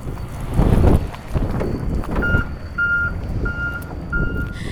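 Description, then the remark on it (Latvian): Heavy machinery rumbles and clanks while a steady series of reversing beeps sounds at a regular pace over a windy outdoor background: tractors continually pushing waste back and forth on top of a 30-metre-high landfill hill at Grobiņa. “Pašā kalna galā šurpu turpu nepārtraukti atkritumu stumda traktori.”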